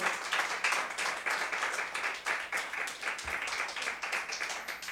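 An audience claps together as an offering of applause to the Lord, in a steady, dense wash of applause, many hands striking rapidly at once, sustained and fairly loud for the whole stretch with no voices standing out.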